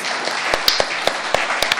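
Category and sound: crowd, audience applause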